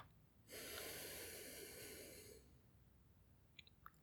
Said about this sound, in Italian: Inspira. Espira.